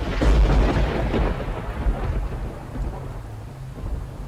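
A deep, rumbling roll of thunder opens loud, then fades into a steady wash of heavy rain pouring down, with no voices present.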